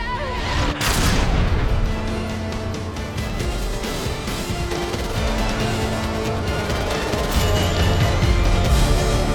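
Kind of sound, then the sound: sound effect, explosion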